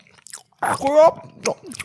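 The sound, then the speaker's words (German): Wet chewing of a mouthful of sandwich, with crunchy bites and smacking, plus a brief muffled vocal hum mid-chew. “mal ganz kurz kauen, warte.”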